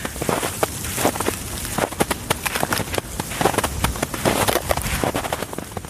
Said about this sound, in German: steife Brise bläst durch vereiste Äste, knarzende Schritte im tiefen Schnee.